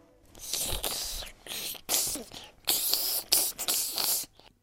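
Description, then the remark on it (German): A voice imitates a snake's hiss in a series of long, breathy bursts with short gaps between them, fairly loud, with no other sounds around it. “Das war Schlangensprache.”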